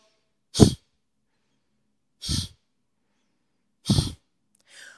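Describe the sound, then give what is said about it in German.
Three sharp, forceful bursts of air blown out through the nose from the belly during a breathing exercise, evenly spaced about two seconds apart, followed by a softer, fainter exhale at the end. “Ähm, wir schnaufen kurz ein durch die Nase und nachher schnaufen wir ganz stark und so richtig fest aus dem Bauch raus, aus durch die Nase.”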